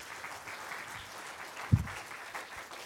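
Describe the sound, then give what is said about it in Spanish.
Steady applause from an audience, a dense wash of many hands clapping at an even level for about three seconds, with one sharp, louder thump partway through. “Era un aplauso fuerte, Señor”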